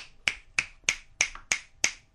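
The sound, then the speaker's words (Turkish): Six sharp finger snaps at a steady, roughly evenly spaced rhythm, each a crisp bright click that fades quickly, used as quiet applause with no talking. “Çok öyle abartmadan alkışlar.”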